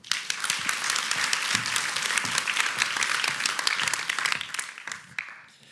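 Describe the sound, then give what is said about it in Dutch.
An audience at a Radboud Reflex evening talk breaks into steady, dense applause welcoming speaker Michiel Korthals, many hands clapping together at an even loudness for several seconds before it thins out and fades at the end. “Ik wens u een hele fijne avond en graag een hartelijk applaus voor Michiel Korthals.”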